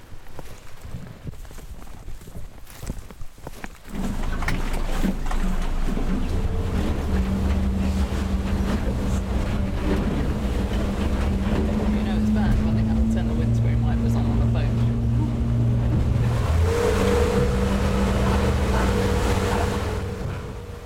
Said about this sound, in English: Okay, after a very shaky boat crossing, we are back on dry land and we're back in Abisko.